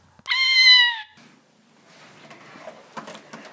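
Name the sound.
kittens meowing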